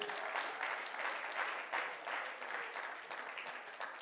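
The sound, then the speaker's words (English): An audience clapping their hands in praise of the Lord during a church sermon, a dense, steady patter of many overlapping claps with faint voices mixed in, holding at an even level throughout. “If you believe that, clap your hands and praise Him right now.”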